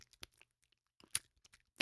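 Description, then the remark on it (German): Soft, sticky mouth clicks from a tongue pulling off the palate: a handful of sharp, wet ticks scattered irregularly over two seconds, faint and with no talking. “Also da bleibt sozusagen ja, die Zunge doch. irgendwo kleben.”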